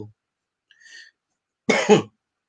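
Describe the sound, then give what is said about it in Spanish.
A single sharp cough bursts out after a brief quiet stretch, with a faint whistle-like tone just before it; no one speaks. “oye, oye, tosí, tosí.”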